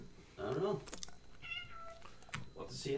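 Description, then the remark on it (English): Several cat meows follow one another in quick succession: a fuller, drawn-out meow first, then higher, thinner mews, all fairly loud over a faint background. “Cats are back. The cats are back.”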